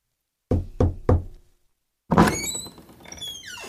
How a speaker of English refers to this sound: Mrs. Crane knocks at the door and Mr. Fox opens it.